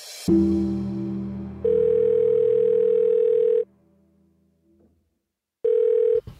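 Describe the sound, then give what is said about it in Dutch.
A phone line rings out with a steady electronic tone while calling Kruidvat customer service, two long bursts separated by a pause of near silence, clear as if through a handset. “je hebt dat gesprek opgenomen, maar Kruidvat was zelf al zo voorzienend om op voorhand te zeggen dit gesprek kan opgenomen worden.”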